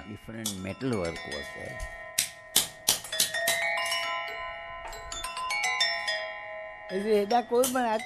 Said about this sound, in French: Moi, j'en joue ici. Quand des personnes viennent me voir, je joue de cet instrument. Je leur fais entendre le son des différentes cloches. C'est nous qui avons tout fabriqué.